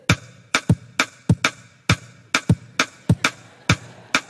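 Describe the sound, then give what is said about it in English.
Sharp percussive clicks in two interlocking pulses, three beats against four, repeating in a steady cycle. Moderately loud, with no voices. “I can take a rhythm and play three beats at one time in a period of time.”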